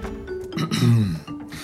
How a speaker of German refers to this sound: Er räuspert sich.